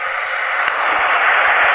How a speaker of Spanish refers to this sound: si tú pulsas una vez, es un pedo cortito. Si pulsas muchas veces, es una ráfaga de pedo. Y si lo tienes pulsado, es un pedo profundo.